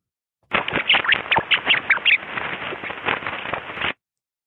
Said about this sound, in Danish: Vil du gerne høre, hvordan rottegrin det lyder